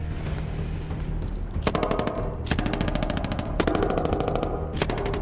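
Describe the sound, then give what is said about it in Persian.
Rapid bursts of intensifying automatic gunfire, several sustained volleys of fast, evenly spaced shots separated by brief pauses, loud with a rumbling background and no voices. “اوزاداش به هم ریخته میشد تیراندازی بالا گرفته بود”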